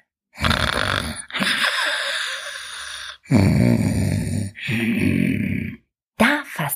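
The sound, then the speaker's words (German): A voice imitates a man's heavy snoring: loud, rasping snores alternating with whistling breaths, about four cycles in quick succession, unaccompanied. “Oh, ist ja gut, ist ja gut, besänftigte die Ellermutter ihn und lauste ihn weiter, bis er schnarchte”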